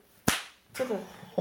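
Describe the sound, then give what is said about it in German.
A person snaps their underwear waistband elastic in public: a single sharp elastic snap cracks loud, followed by a brief spoken word and a short laugh. “Ich habe an meinem Schlüppi geflitscht, hast du es gehört?”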